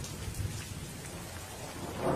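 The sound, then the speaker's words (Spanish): Heavy rain pours steadily in a dense hiss while low thunder rumbles underneath, swelling slightly near the end; no voices are present. “Los ronquidos de Dudley quedaron amortiguados por los truenos que estallaron cerca de la medianoche.”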